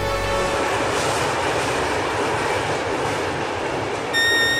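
A train rolls steadily along the rails with a loud, continuous rumble and rattle, and a thin metallic squeal rises briefly near the end. No one speaks.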